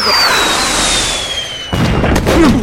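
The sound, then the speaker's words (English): A missile fired at an aircraft: a rushing hiss with a high whistle sliding steadily downward in pitch, then an abrupt, loud explosion that breaks into a heavy, rumbling roar for the last second. “Sounded like a missile got fired at us.”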